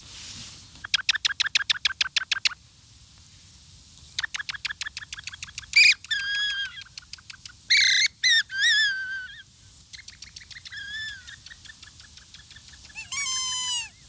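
Shrill, rapid whistled calls from a tiny bird-call whistle blown by mouth repeat in quick bursts, followed by varied chirps and trills of dozens of birds of all kinds responding, with brief loud squeaks near the end; no one speaks.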